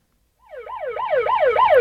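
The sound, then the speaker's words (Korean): A police patrol car siren on a highway wails in a fast, rising-and-falling yelp, cycling about four times, fairly loud and steady over a low rumble of traffic, with no voices. “어라 어라 어라 갑자기 어디선가 경찰차 사이렌 소리가 들리는 겁니다.”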